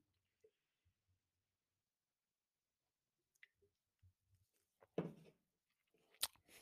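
Someone takes a sip of Goose Island Golden Ale from a White Sox can on a Friday night: a few faint clicks and mouth noises, then a brief, breathy slurp followed by a sharp little clink. No talking.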